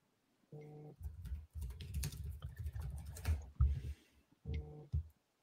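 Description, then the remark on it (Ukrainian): Rapid keyboard typing of a message to send via Telegram, a steady stream of quick clicks lasting several seconds, bracketed by short droning tonal hums at the start and end. No one speaks. “Напишу тобі в Телеграм.”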